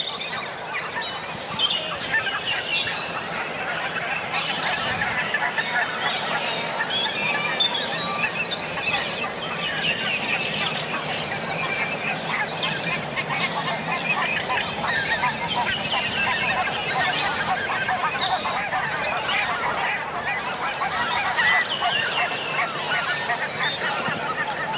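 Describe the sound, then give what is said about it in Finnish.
A flock of geese, including tundra geese, honks steadily as it flies overhead, many overlapping nasal calls forming a dense, fairly loud chorus with audible wingbeats for the whole stretch, with no one talking. “Joo, hanhet lentää ihan tästä meidän pään ylitse.”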